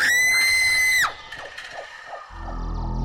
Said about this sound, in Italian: Ecco, in un vicolo buio e sporco di Whitechapel che si chiama Bucks Row, nella Londra di fine Ottocento, tra le prime nebbie di un mattino umido e già freddo d'inizio autunno, che all'improvviso si sente un urlo.